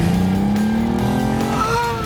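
A car engine revs up as the driver presses the accelerator, its pitch climbing steadily as it accelerates, a loud continuous motor roar with rising harmonics throughout.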